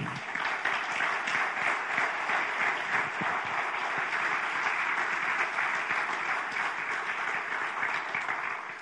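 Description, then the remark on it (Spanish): A church audience claps for the Lord steadily for several seconds, a dense, even wash of many hands with no break or rise, sustained at a constant loud level until it trails off at the end. “¿Cuánto damos un aplauso al Señor?”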